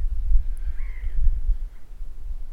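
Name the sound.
birds calling outdoors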